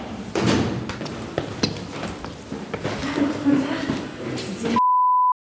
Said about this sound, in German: Klingeln? Gut. Ich klingel. Und tatsächlich, die Tür geht auf. Wir zögern kurz und gehen rein.